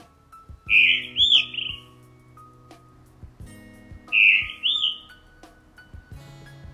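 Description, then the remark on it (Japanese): A blue rock thrush sings two clear, bright, warbling phrases a few seconds apart from a church roof at about 4:30 in the morning while it is still dark, over a low steady hum and faint background rumble. “はいこんな鳴き声でね、えー、なんかこうさあ起きろよというようなねあの音なんですけども鳴き声なんですけど磯ヒヨドリではないかと思われるんですね”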